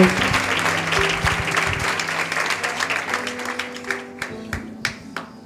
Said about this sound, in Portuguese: Aplaudam Jesus pela vida da pastora.